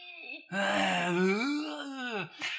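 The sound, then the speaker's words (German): A person vocally imitates the strange noises a man made while sleeping (not snoring): a drawn-out, wavering moan that rises and falls in pitch for about two seconds, ending with a brief breathy whimper; fairly loud, with no talking. “Nicht geschnarcht, sondern so komische Geräusche gemacht. Immer so.”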